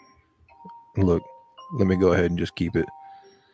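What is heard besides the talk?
alarm going off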